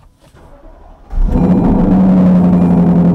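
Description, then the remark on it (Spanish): After a second of near quiet, the engine of a 2021 Lexus LC 500 convertible cold-starts with an abrupt burst and settles into a loud, steady, droning high idle with a deep rumble. “Recordemos que estamos en el nuevo Lexus LC 500 convertible del 2021 y esto es un literalmente un cold startup.”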